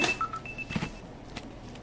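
A phone rings with an incoming call, playing a few thin electronic beeping tones over a soft background of muffled knocks and rustles, fairly quiet and with no one talking.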